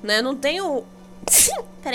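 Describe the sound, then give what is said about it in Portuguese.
A single loud sneeze bursts out in the middle of casual conversation, with people talking and a brief laugh before and after it. “Espirro tá aí.”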